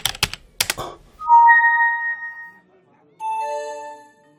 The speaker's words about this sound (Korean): 나는 그냥 보는 것만으로 만족하기로 하고 게시판을 더 훑어보는데 선우 씨에게 메신저로 연락이 왔다.